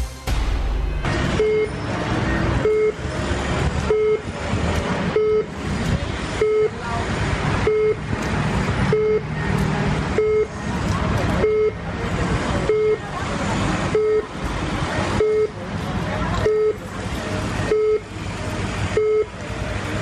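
Car horns honk nonstop at a steady, regular pace in Mumbai traffic, sounding above a constant roar of heavy traffic.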